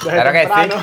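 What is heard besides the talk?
beer glasses clinking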